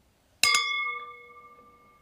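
Two quick clinks of drinking goblets ring out together as an intro gong, leaving a bright, sustained tonal ring that slowly fades; a faint sound follows at the very end.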